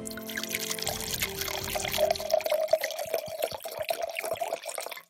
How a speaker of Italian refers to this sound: Bene, a questo punto esci la bottiglia e stappala.